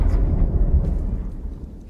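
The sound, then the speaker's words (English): A deep, rolling rumble of thunder as a storm comes on, heavy in the low end, easing off slightly as it fades toward the end, with no voices. “Oh, the weather outside is frightful.”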